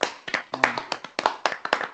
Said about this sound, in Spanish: pues un aplauso a Glorioso 1903